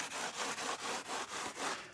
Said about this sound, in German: gleicht mit der Pfeile Unebenheiten aus, damit die Dämmung so plan wie möglich auf dem Boden aufliegt.